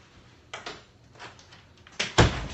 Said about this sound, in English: So I'm gonna close the door, hold on.